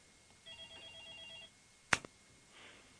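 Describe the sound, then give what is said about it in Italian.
A telephone rings for about a second with a rapid, trilling electronic warble as an incoming call is taken live on air, followed by a sharp click like a handset being picked up, then a faint tone. No one speaks. “Ma ora prendo la telefonata.”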